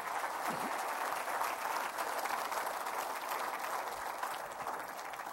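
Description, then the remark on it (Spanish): A church audience applauds Christ steadily, a dense wash of many hands clapping at an even, sustained level for several seconds with no voices standing out. “Dale un fuerte aplauso a Cristo, hermano.”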